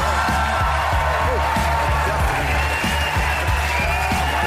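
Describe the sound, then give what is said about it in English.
Loud, sustained audience applause and cheering as a standing ovation for Congressman Adam Schiff, a dense roar of clapping with shouts mixed in, holding steady at full strength throughout without a pause. “Deafening applause for Congressman Schiff.”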